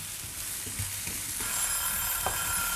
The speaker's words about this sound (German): Das wird jetzt super, das karamellisiert. Jetzt, jetzt geht's ab in der Pfanne.